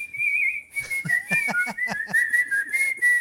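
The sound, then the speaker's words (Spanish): A person whistles a clear, sustained tune that wavers slightly in pitch, fairly loud, accompanied from about a second in by a steady series of rhythmic percussive taps. “Ahí está el chiflito”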